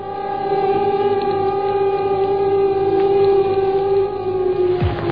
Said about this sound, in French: Ce matin, l'alerte a sonné.